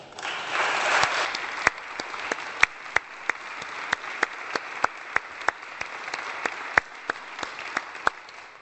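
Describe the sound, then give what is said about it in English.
An audience applauds steadily for several seconds for two people, one of them the clerk, who stand to be recognized. A dense wash of clapping with sharper individual claps standing out at a fairly regular pace, moderately loud and without any talking. “if you both would stand, and would you please show them your appreciation.”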